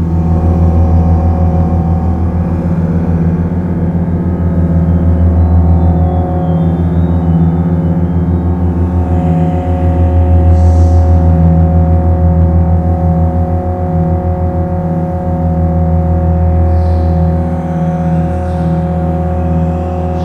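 song played

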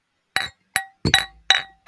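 household object, glasses clinking together

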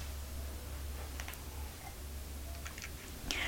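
food or drink, sipping bitter black coffee

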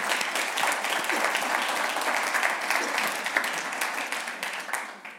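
crowd, audience applauding the musicians

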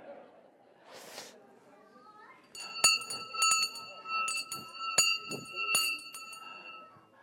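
signal or alarm, ringing bell

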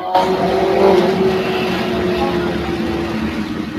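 vehicle, motorcycle passing by outside

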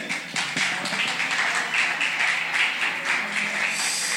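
crowd, audience applauding

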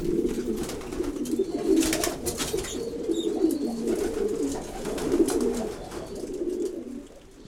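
bird, domestic pigeons cooing

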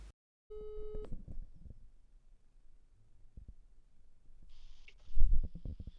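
signal or alarm, telephone ringing tone

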